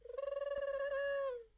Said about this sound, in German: Das ist die Taube und ähm, das heißt, du musst eine kleine Blitzaufgabe jetzt machen.